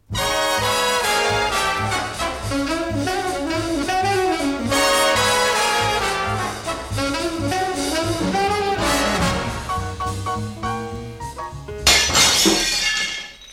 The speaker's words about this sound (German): Dieser Stein, meine Damen und Herren, der außer der Fensterscheibe beinahe auch noch die rostfreie Biedermeier-Standuhr im Kaminzimmer des Meisterdetektivs Bob Klemmerle zertrümmert hätte, dieser Stein wurde leider etwas zu früh geworfen.